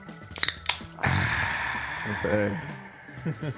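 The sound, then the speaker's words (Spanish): A couple of sharp metallic clicks, then a sudden airy hiss as the cap comes off a bottle of Imperial beer, the fizzing trailing on beneath a man's speaking voice. “Acabas de abrir una impe...”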